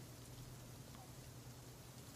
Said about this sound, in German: bis auf den Regen ist es, wie gesagt, recht still in der Umgebung.